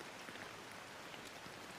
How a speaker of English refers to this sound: Enjoy a moment of feeling cozy and comfortable as you watch the rainstorm replenishing the landscape in front of you. Imagine how the rain interacts with the landscape, bouncing off leaves,